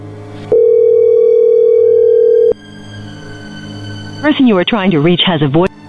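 A phone line rings out with one steady, unbroken mid-pitched tone lasting about two seconds, then a quiet gap, followed by a burst of warbling, wavering electronic tones.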